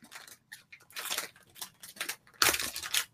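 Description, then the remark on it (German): Crinkly plastic bag holding a part in Sand Purple and other obscure colours, rustling in irregular bursts, with crisp, hissy crackles that swell and fade, the loudest crunch near the end, and no voices over it. “Ja, zufällig zufälligerweise habe ich sogar das Teil in Sand Purple in dieser Tüte hier.”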